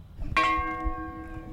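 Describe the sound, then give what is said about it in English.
A single memorial bell is struck once at a last roll call, tolled as each name is read a final time, and left to ring, its clear metallic tone lingering and slowly fading over a low background rumble. “The last roll call is taken, each name is read a final time, James and a bell H. is tolled.”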